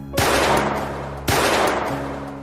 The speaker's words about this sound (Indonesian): Dari arah hutan, Sylvie memanggil-manggil nama Cory supaya suaminya menghadap ke arahnya. Saat itulah ia melepaskan dua tembakan.